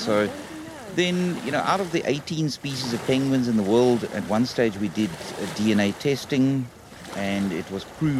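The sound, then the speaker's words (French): African penguins of the South African coast bray like donkeys in a loud series of harsh, honking calls that rise and fall in quick succession for several seconds, with only short pauses between bursts. “Ils font le même bruit que les ânes quand ils braient.”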